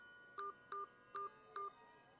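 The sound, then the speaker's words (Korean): Four short electronic keypad dialing tones beep as a four-digit code is entered on a mobile phone to play voicemail, in an even, steady rhythm, each a brief two-tone chirp with short pauses between, clear over faint background hiss. “네 자리를 눌러주십시오.”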